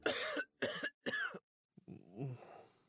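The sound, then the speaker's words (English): Three harsh coughs in quick succession, then a brief pause and a lower, rasping clearing of the throat, from a person with a cold at night. No one speaks. “The nighttime sniffling, sneezing, coughing, sore throat, stuffy head, aching, fever, best sleep with a cold.”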